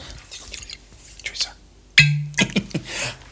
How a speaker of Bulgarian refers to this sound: Какво беше това? Отворих си бутилка.